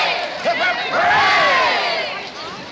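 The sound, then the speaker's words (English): A large crowd roars and cheers at a 1968 political rally for Richard Nixon, a dense, loud wall of overlapping voices with shouts rising above it, swelling in the middle and holding steady throughout. “After the roar died down, I remained standing at the edge of the stage, arm outstretched, with my microphone, asking Mr.”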